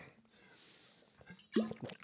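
A quick swig from a blue bottle: a brief wet slurp and gulp of liquid after a near-silent pause, followed by a softer second swallow.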